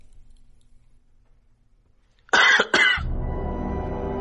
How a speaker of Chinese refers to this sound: 他咳嗽第三声的时候，我觉得他已经站在我对面了。